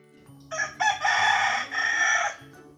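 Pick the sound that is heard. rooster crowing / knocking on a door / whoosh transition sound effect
rooster crowing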